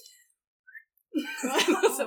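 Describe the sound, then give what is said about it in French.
A breathy, airy attempt at whistling by a woman who cannot whistle, barely forming a tone, starting after a short pause and hissing on for about a second, moderately loud. “Elle ne sait pas siffler, elle ne sait je sais siffler.”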